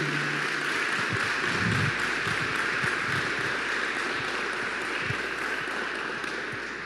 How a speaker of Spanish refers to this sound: Le damos un fuerte aplauso al Señor Jesús en esta mañana.